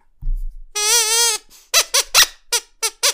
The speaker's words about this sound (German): Ja, da ist sie wieder, die Ekelquietsche. Und ich verspreche euch, ja, es wird so sein, sie wird in dieser Folge im Dauereinsatz sein.